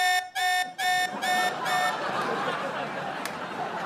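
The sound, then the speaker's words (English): An alarm on a studio stage, set off by someone leaving the stage, goes off with five loud, rapid electronic beeps in a steady rhythm, then fades into a murmur of background noise. “Wait, so the alarm goes off if I leave the stage?”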